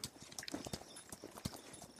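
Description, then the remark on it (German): Saddled horses' hooves clip-clop in a steady, brisk rhythm of sharp knocks as they set off on the way back, with several hoof strikes per second and no talking. “die Pferde gesattelt”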